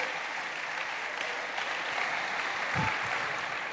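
A crowd applauds steadily, a dense wash of many hands clapping at an even loudness for several seconds with no voices rising above it.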